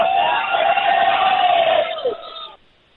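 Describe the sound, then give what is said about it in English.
A large crowd at a campaign tour stop in Fernley, Nevada, roars out a loud, sustained shout of hello that swells into cheering, holding for about two seconds before fading quickly into quiet. “I'm about to yell to this crowd so everybody can say hi to Mark Levin”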